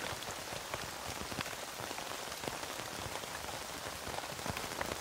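Steady rain falling on a tent, a dense wash of hiss with scattered sharper drop taps throughout, even and continuous with no voices.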